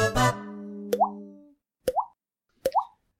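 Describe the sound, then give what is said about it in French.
A short jingle introducing a French-language weather segment, 'La météo des poteaux': a bright chord rings and fades, followed by three watery, upward-bending plop sounds spaced evenly apart, with no talking. “Euh, jingle rubrique. Météo.”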